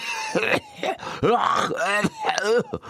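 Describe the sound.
A person fakes a fit of coughing in front of a door, several drawn-out, groaning hacks in quick succession, fairly loud, with no other talk.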